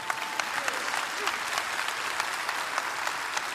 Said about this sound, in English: Okay, I'm glad you're clapping now because I just started.